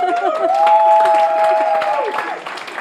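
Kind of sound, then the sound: crowd, audience clapping and applause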